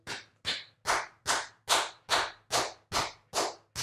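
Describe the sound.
Nine loud, sharp hand claps or slaps land in a steady, fairly quick rhythm, each crisp with a short decay, and nothing else audible.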